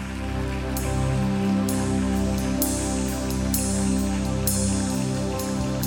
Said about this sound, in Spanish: Dale un fuerte aplauso, Rey, si tú lo crees.